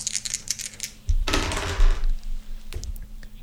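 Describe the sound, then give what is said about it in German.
Dice clatter and roll across a hard tabletop in a loud rattling burst of about a second, after a few light clicks, and end in one last sharp tap. “Ich habe jetzt den neuen Würfel leider nicht im Griff.”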